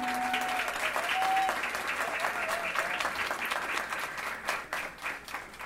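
A crowd applauds steadily for several seconds, a dense wash of many hands clapping at a fairly loud, even level, with a few brief whistle-like tones near the start.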